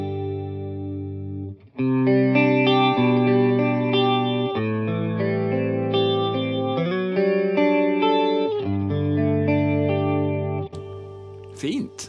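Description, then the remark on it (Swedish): Electric guitar plays sustained, ringing chords through a tri-chorus effect, three choruses placed right, left and center, that thickens and swirls the tone into a wide shimmer. It's loud, with no talking over it, and cuts off abruptly near the end. “på slutet på 80, början 90 så var ju de här tri-chorus populära”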